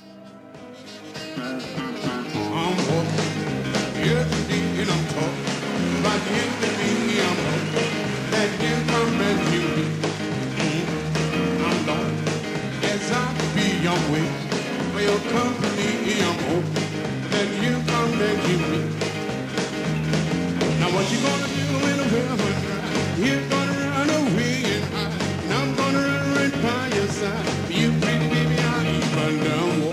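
An upbeat 1950s rock and roll recording plays at steady volume throughout, with a driving rhythm, walking bass and piano. No one talks over it.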